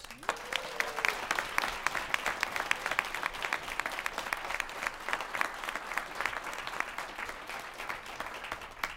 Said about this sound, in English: Those Say Yes Cleveland uh, tables are populated by the family support specialists who deserve another round of applause.